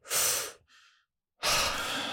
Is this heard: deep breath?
yes